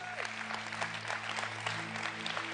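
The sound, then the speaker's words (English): A church audience applauds after a testimony with steady, dense clapping, a broad wash of many hands at moderate loudness over a low steady hum. “Let's give them another big hand for.”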